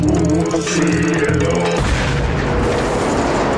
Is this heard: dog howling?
no